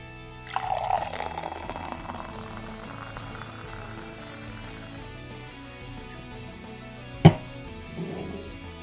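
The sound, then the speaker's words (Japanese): Freshly opened beer is poured into a glass, a steady gurgling, fizzing stream lasting several seconds, ending with a sharp clink of the bottle against the glass. The beer is a slightly dark, clear golden colour with nearly white foam. “じゃあ開けてついていきますね開けますはい、じゃあね、いつも通りついていきます。”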